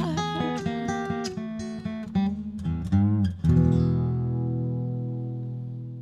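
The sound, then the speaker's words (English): An electric guitar played by a guitarist plays a short run of picked notes and bends, then strikes a full chord that rings out and slowly fades, loud with no voices. “… on guitar.”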